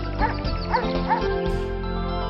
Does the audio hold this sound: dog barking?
yes